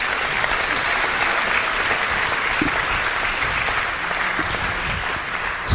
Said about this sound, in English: So let's give a round of applause for the Diocese of Fargo on this grand night for our diocese.